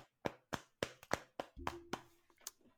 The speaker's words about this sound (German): Können wir, können wir uns kurz also auf die Schulter klopfen? Ja, mach mal, mach mal.